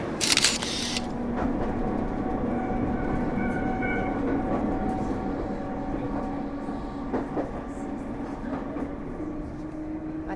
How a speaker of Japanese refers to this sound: 私は今南海電鉄高野線に乗って高野山に向かっているんですが東京駅を出て間もなく5時間だんだんと高野山に向かってっているのが分かるように電車が斜めに走っているんですよ